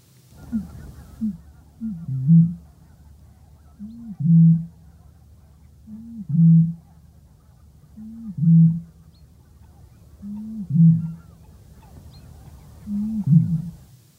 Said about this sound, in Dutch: Want het gaat om de roerdomp. Wat een mooi geluid. Waanzinnig, hè?